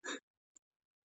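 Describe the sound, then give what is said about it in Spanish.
A single sudden sneeze bursts out loud, followed a moment later by a short faint breath or sniff, then silence. “Salud.”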